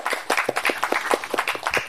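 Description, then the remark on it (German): An audience claps steadily for a man sitting at the back who records the show, a dense patter of many hands with sharp individual claps standing out, moderately loud throughout the short burst. “auch da hinten sitzt und uns Applaus wieder aufnimmt.”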